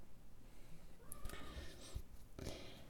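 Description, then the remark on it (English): Soft scuffing and cardboard rustles as a cat clambers into a box, with a couple of brief thumps and a faint squeaky chirp, fairly quiet, no voices. “My cat is climbing in a box.”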